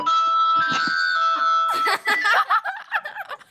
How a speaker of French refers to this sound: vous allez vous découvrez maintenant que ma sonnerie de téléphone, c'est Harry Potter.